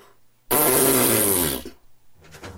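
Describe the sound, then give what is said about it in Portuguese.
A loud, drawn-out fart sound effect from an ox blasts for about a second, raspy, then trails off into faint, quieter rustling. “De fato, no terceiro dia, o boi deu um.”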